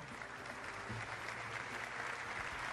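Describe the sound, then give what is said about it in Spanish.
Sustained applause from a large audience welcoming six presidential candidates at a debate, a dense steady wash of clapping at an even loudness throughout, with no voices standing out. “Los recibimos con este aplauso.”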